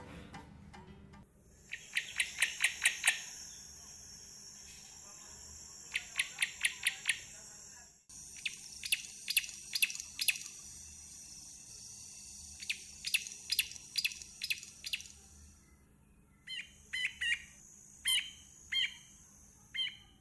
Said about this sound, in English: The bird for today is the grey backed Camaroptera, And if you cannot pronounce the word Camaroptera, just call it Camera Operator, like I tend to tell my clients.